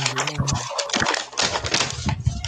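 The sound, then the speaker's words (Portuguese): Busy plastic clattering picked up by a speaker's microphone: a dense, irregular run of sharp clicks and knocks, fairly loud and steady for a couple of seconds, with no voices. “É bom, é bom mutar o microfone às vezes, meu querido. Ah. Só pra não o barulho do plástico.”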